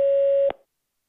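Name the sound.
voicemail recording beep tone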